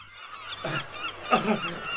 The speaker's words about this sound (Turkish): Bu kuşlardan oluyor yahu. Üstümüze üstümüze geliyorlar. Tepemizden bir türlü gitmiyorlar. Cıvıl cıvıl. Ne demek istiyorlar acaba?